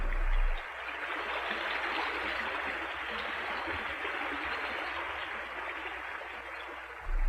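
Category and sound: nature, flowing river water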